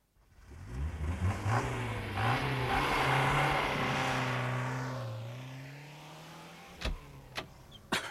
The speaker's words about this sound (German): Eine schwarze Limousine, ohne Licht, schoss aus der Nebenstraße und stellte sich quer vor ihren Wagen.